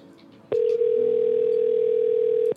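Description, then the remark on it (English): A steady telephone dial tone after a call is disconnected drones loudly for about two seconds after a faint click, cutting off abruptly with another click, with quiet background noise before and after. “She's all disconnected now.”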